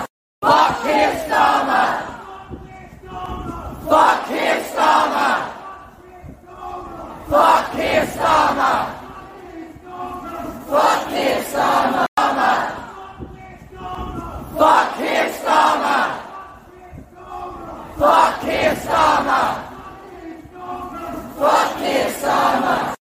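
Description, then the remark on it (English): A large crowd at the Brianna Ghey vigil chants in unison, loud, shouting a short phrase in steady rhythmic bursts separated by brief pauses, repeating over and over throughout. “Um, that for context was um the crowd at the Brianna Ghey um vigil,”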